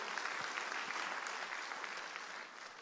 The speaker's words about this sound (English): We can clap. Isn't that beautiful?